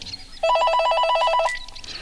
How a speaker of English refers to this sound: Oops, phone call.